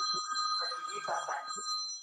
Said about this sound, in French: Bon, visiblement, il n'est pas là, puis toi, ton téléphone sonne.